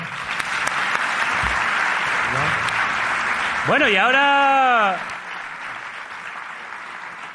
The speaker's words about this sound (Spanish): Un aplauso para los tres, por favor.